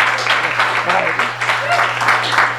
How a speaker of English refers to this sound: And if you clap loud enough, maybe he'll come out and read a poem.